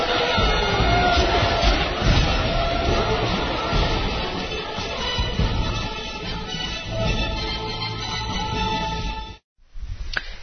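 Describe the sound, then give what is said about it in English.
A large crowd roars and cheers with scattered shouts, a dense, loud, sustained wall of noise that drops out abruptly for a moment near the end before briefly resuming. “Big turnout here from all corners of the Outer Rim territories. Order! We shall have order! The crowds are going mad!”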